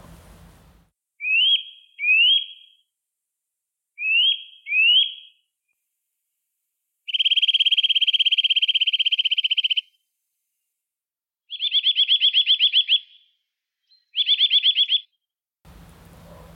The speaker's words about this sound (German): Kleiber